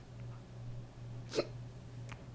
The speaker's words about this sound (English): Other than hiccups. Sorry. Freaking hiccuping I'm on the podcast. Sorry, I can't control my body.